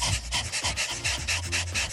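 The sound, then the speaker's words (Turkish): A person imitates a dog panting as a breathing exercise, tongue out and hand on the flank: quick, breathy huffs in a fast, steady rhythm, fairly loud, some carrying a faint voiced tone. “İkinci egzersiz köpek nefesi.”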